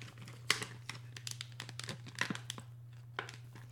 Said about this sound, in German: Ja, dann hier. musst du drauflegen. Okay, Sekunde. Kurz ASMR hier, Käse belegen.